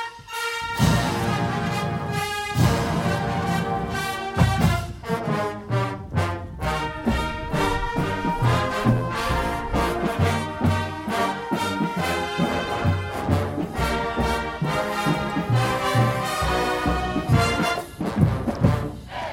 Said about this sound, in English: Such a thrill, the Missouri Marching Band actually doing the mailbag jingle. Such a thrill.